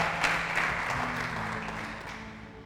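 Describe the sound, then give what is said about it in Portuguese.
An audience applauds Jesus steadily, a dense wash of many hands clapping at once, starting strong and slowly tapering off, with a low sustained hum underneath. “Você pode dar um aplauso a Jesus bem forte.”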